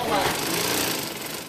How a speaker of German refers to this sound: Überall Nähmaschinen.